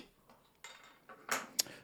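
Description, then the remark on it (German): Glasses clink together in a toast: a few bright, ringing taps, the last one sharp and high, with no talking over them. “Äh, zum Wohl. Zum Wohl.”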